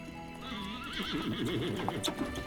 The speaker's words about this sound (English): As her carriage rolled through the tree lined neighborhood, she marveled at the gorgeous new villas nestled among the stately old brick mansions.